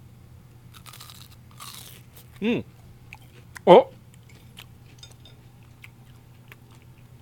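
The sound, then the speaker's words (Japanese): Two crisp, crunchy bites into a fried Tenpozan croquette, a smallish mountain-shaped croquette like half a rugby ball, filled with taro, lotus root and chicken, spaced about a second apart, with a short murmur and a steady low hum underneath. “今度は天保山コロッケです先ほどのコロッケに比べますとちょっと小さめなんですが山形になっていますラグビーボールを半分に切ったようなそんな感じに見えるんですがではいただきますよはいこの中に里芋とレンコンとそして鶏肉が入っているということですいただきます”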